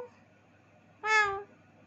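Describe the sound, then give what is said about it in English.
A single short, high kitten meow rings out clearly in the middle, lasting about half a second, with near-silence before and after. “The kittens immediately responded, Meow!”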